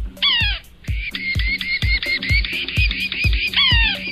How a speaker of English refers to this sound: today's featured feathered friend is a boss of the backyard dominating most other species of birds in the competition for access to your feeders. It's the yellow bellied sapsucker.